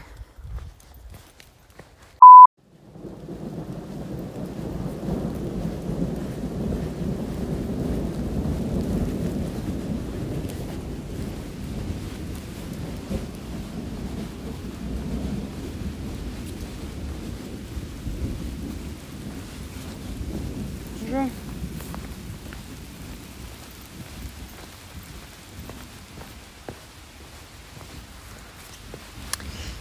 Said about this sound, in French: Ça il pleut.